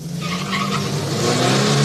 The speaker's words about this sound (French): Les accélérations intempestives, souvent inutiles, suivies de coups de frein, entraînent une consommation d'essence excessive.